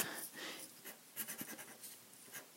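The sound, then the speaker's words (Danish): A pen scratches across paper in short, quick strokes as someone writes a note to put in a food truck's window, soft scribbling with brief pauses between marks. No one speaks. “Jeg skriver en seddel og sætter den i vinduet til dem.”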